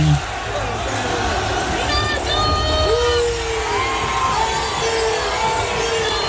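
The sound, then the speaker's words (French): A large crowd of opposing football supporters at an Al Nassr match chants "Messi" in unison, rising and falling voices repeating the short rhythmic call over a steady, loud roar of background hubbub. “Hmm, durant tout le match, durant tout le match, il a entendu ça de la part des supporters adverses.”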